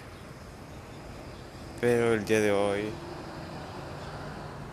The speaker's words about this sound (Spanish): Disculpen el ruido, estoy en la calle.